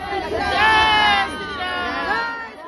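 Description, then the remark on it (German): A large crowd in the streets of Ayodhya, India, chants "Jai Shri Ram" (Glory to Lord Ram) together in a loud, dense roar, with rising and falling harmonic chant-like calls layered over steady babble for a few seconds. “Das hört man gerade viel tausendfach auf Ayodhyas Straßen.”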